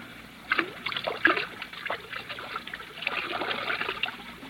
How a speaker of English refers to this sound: Ah, there's the whiskey, still half full. Pour most of it out, so that it will look as though we had even more to drink.